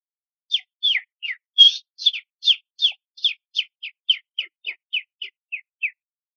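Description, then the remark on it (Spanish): A voice imitates a small bird's call: a quick, steady run of about fifteen high, downward-sliding chirps, clear, with no talking. “pero cuando crecí, se me acercó un pajarito y llegó y se me hizo aquí.”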